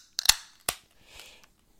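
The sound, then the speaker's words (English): Two sharp metallic cracks as drink cans are pulled open for a New Year toast, each followed by a brief hiss, then a soft, short fizzing of foam from a can that had been knocked over shortly before. There is no talking. “Uh, let's crack them open.”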